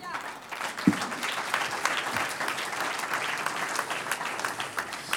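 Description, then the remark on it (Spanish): An audience in church applauds for the Lord, a steady, dense wash of clapping that holds at a fairly even loudness throughout, with one sharp low thump early on. “Un aplauso al Señor.”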